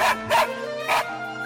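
Three sharp dog barks in quick succession, loud, with a bright yappy edge, over a steady low background hum.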